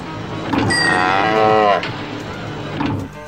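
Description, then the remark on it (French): A single long cow moo, loud, with a drawn-out rich tone that slides slightly downward before cutting off, followed by quieter background noise. “Pour avoir du bon lait tous les jours, pas la peine d'avoir sa vache.”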